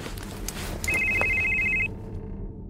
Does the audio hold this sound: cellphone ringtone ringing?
yes